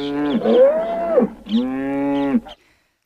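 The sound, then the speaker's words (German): A cow moos twice, loud: a long, wavering low call followed by a shorter, steadier one after a brief pause. No one speaks. “Ich weiß nicht, was verrückter ist, dass sie nicht auf die Idee kam, sich im Vorfeld mal Gedanken zu machen, wie man eine Kuh transportiert”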